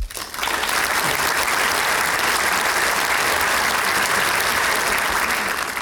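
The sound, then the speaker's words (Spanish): Sustained applause from a sizable crowd, loud and dense, starting abruptly and continuing steadily for several seconds as a wash of many hands clapping at once, with no voices standing out. “Un aplauso para, vosotros, por vosotros, em, porque si, sin vosotros esto no habría sido posible.”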